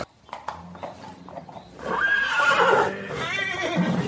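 A horse neighs loudly in a stable, a long wavering whinny in the second half, preceded by a few hoof clops and shuffling sounds, with no talking.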